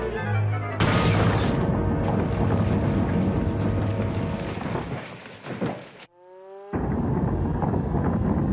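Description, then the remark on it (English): A mine collapsing with a loud, steady roaring rumble. Near the end it briefly drops away to a falling, whistling tone, then the heavy roar returns. No one speaks. “The mine's collapsing!”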